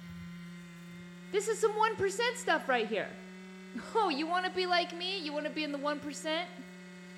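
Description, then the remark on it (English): A computer fan whirs loudly with a steady, unbroken droning hum that runs the whole time, while a man talks over it in two bursts. “We're doing pretty well up here in the 1% with our computers that sound like they're about to explode.”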